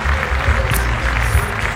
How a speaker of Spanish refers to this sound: No, bueno, pues aplauso para ese Grand Prix también